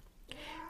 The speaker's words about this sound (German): Falls es jetzt hier maunzt im Hintergrund, das ist meine Katze. Ich werde es jetzt nicht rauslöschen. Ich lasse sie jetzt weiter maunzen. Es ist eine alte Dame von 19 Jahren, die taub ist und deswegen auch wahnsinnig laut maunzt im Hintergrund.